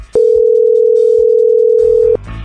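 A telephone ringback tone sounds once as a loud, steady mid-pitched hum lasting about two seconds, then stops abruptly, leaving faint background noise; no one picks up and nobody speaks.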